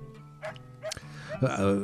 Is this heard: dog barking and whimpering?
yes